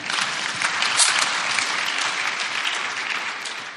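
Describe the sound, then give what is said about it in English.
An audience claps steadily for several seconds, a dense, crackling wash of many hands at a fairly even loudness with no voices standing out. “Yeah, go and clap.”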